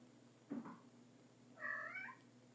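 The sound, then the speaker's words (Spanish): A domestic cat gives a brief low chirp, then a clear, drawn-out meow that rises and falls, with no talking. “Y mis gatos lo saben. ¿Qué tiraste, amor mío?”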